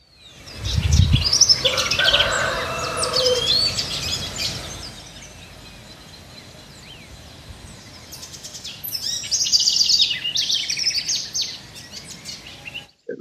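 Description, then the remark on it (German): Birds chirp and sing in a busy, overlapping chorus of high tweets and trills, loudest at the start and again near the end, with a brief low thump early on. “Dann die Vogelwelt, es ist unglaublich, mir haben wir schon erzählt, hier können wir die Kolibris beobachten von unserem Balkon.”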